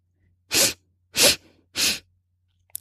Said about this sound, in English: Ready? Three quick sniffs and a long exhale. Let's do three more. Ready? Three quick sniffs.